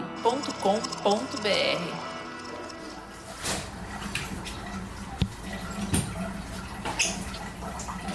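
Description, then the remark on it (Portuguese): Steady splashing of shower water falling onto a floor and running into a drain as a doctor gives a 69-year-old man a shower, with occasional sharper drips and knocks; a faint voice is heard briefly at the start. “Esse barulho que a gente está ouvindo é o da água de um banho caindo no chão e entrando no ralo.”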